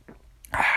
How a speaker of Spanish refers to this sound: Pero bueno, vamos a finalizar un pequeño trago